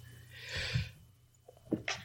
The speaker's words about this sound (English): I'm sorry, I'm having a sneezing fit.